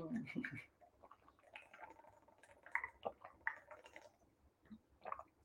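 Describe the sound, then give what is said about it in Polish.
Someone drinks water, with a series of soft wet gulps and swallowing sounds spaced irregularly over a few seconds, quiet, with no talking. “I potem pijemy wodę z wdzięcznością.”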